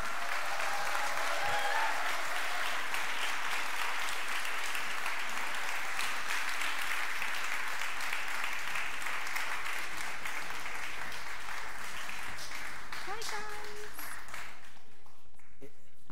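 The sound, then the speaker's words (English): A crowd applauds steadily for about fifteen seconds as families come up on the stage to dedicate their children, a dense sustained clatter of clapping that holds its level before tapering off abruptly at the end, with a few faint voices underneath. “And as they come up, give a big round of applause for them.”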